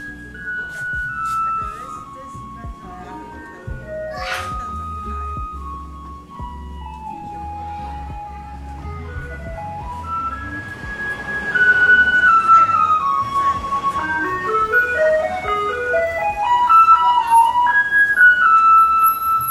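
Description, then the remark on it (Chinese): A garbage truck plays its tinkling electronic tune, a simple melody of clear high notes stepping up and down over a low engine rumble, growing louder partway through. “垃圾车到了，给你们听一下。垃圾车到了。”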